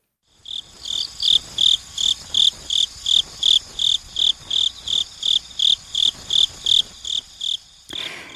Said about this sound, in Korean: 이 소리는 우리 뚜리뚜리 귀뚜라미 울음소리였고요